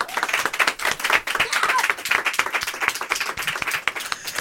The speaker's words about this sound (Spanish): Un aplauso para él.